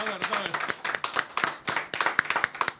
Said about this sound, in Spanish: Un aplauso